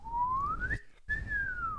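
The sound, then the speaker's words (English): A person vocally imitates the comedy slide whistle in a song: one tone glides steadily upward, breaks off briefly, then slides back down. Fairly loud, with low background noise underneath and no talking. “one of those comedy fucking whistles.”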